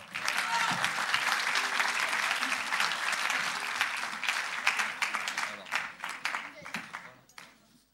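An audience breaks into sustained applause for a performer from the girls of Pasteur: dense, steady clapping from many hands for about seven seconds, with a few sharper individual claps standing out before it thins and fades at the end.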